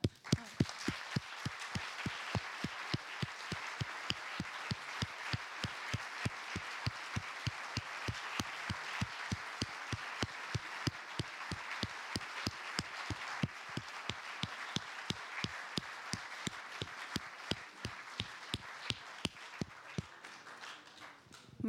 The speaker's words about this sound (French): Mais on vous applaudit avant d'en dire plus.